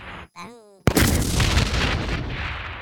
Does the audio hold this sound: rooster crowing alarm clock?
no